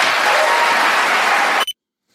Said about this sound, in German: Ja, großer Applaus dafür.